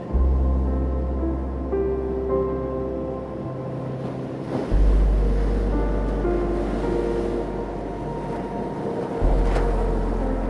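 Ocean waves wash in a steady, hissing roar, swelling twice as new breakers roll ashore, layered over a deep, sustained low hum with no voices present.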